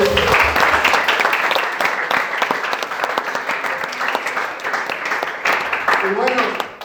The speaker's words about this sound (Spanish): Un aplauso